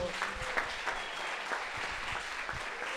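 An audience applauds the Lord steadily throughout, a dense, continuous patter of many hands clapping at moderate volume, with no voices rising above it.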